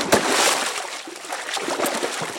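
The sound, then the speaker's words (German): A loud splash as someone jumps into water, with a sharp impact at the start followed by churning, sloshing water that slowly settles. No voices. “Und da hören wir ein großes Platschen. Da springt jemand ins Wasser.”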